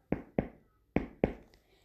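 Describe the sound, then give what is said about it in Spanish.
Four solid knocks on a wooden door, struck in two quick pairs with a short pause between, each a hollow thud that rings briefly. Clear, with no voices. “Por fin llegó a casa de la abuelita y llamó a la puerta.”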